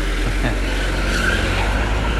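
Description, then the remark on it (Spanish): A car rolls along a street, its engine rumble and tire noise loud and steady for a couple of seconds, with no voices. “No me pilla ningún coche. Hoy grabando también desde la calle.”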